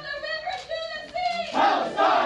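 Pro-Palestine protest crowd chanting slogans as protesters are escorted out: a sustained, tonal call in the first half, then a louder, rough mass of many voices shouting back in two strong bursts.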